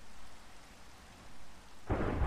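Steady rain hisses in the background, then a loud rumble of thunder breaks in near the end and swells broadly. No voices are present.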